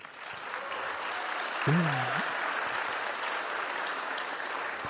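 Steady audience applause at a live stage show, given on the host's call for a contestant, fills the whole stretch as a dense, even wash of clapping. Around the middle, a brief voiced sound like a short cheer or call rises above it.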